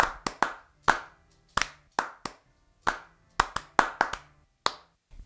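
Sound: audience clapping hands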